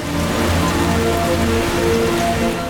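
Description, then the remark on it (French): Dense, steady downpour of rain mixed with hail, drumming hard on surfaces, a loud continuous roar with a gusty wind-like rush underneath and no voices, during a thunderstorm line over Montreal. “Un amalgame de vent, de grêle, de pluie s'abat dans le cœur de la métropole.”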